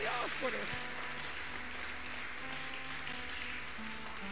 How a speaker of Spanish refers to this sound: Alguien dele un fuerte aplauso.